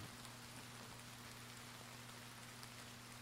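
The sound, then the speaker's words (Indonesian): Steady daytime rain falls in a continuous, even hiss of countless drops, fairly soft and unbroken, with a faint low hum underneath and no voices. “Hujan siang ini menghantarkanku pada sebuah rasa.”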